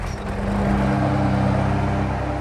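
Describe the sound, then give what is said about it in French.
A ride-on lawn mower engine, driven by a campsite manager mowing the campsite's three and a half hectares of grass, runs steadily, a loud, continuous low mechanical drone with a slight rumble and no speech over it. “le gérant du camping, sur son tracteur tondeuse.”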